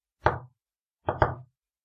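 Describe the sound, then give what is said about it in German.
A single knock on a closed door, then after a pause two quick knocks close together, clear, with no one talking. “Die ist geschlossen. Okay, dann klopfe ich mal an.”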